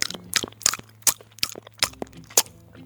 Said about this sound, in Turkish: Birkaç şapırtı